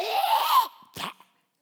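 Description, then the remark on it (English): A voice mimics Jesus hawking a loogie: a raspy, throaty hawk for about half a second, then a brief pause before one quick, breathy spitting burst into his hand, fairly loud. “because Jesus hawks a loogie and spits it in his hand.”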